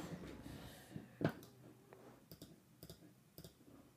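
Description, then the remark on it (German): A string of sharp, quiet clicks, several in quick pairs, like a mouse or keys being clicked repeatedly, over a faint background hum with no talking. “So, was klickst du denn da wie ein Wilder?”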